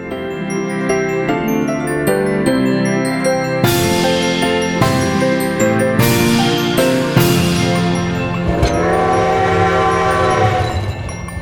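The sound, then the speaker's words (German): A steam train rumbles along steadily while its horn sounds in long, sustained tones, with bright bursts of hiss and clatter rising over the continuous low drone. No one speaks. “Im Waggon ist die Kohle gelagert, die es benötigt, um die Lokomotive anzutreiben.”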